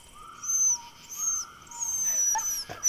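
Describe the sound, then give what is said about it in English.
A dog whimpers in a series of high, thin whines, each drawn out for about half a second, with a brief sharper yelp near the end. Fairly clear, with no talking. “Is that a dog?”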